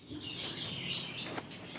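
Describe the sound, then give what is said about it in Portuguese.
A dense chorus of many caged songbirds chirping and twittering nonstop at a home in the Novo Mundo area, south zone of Curitiba, with many high, bright calls overlapping, steady throughout with no voices. “O Julião mora numa casa simples no Novo Mundo, zona sul de Curitiba, num terreno que divide com a mãe, com a ex-mulher, com gato, cachorro e muita, muita gaiola de passarinho.”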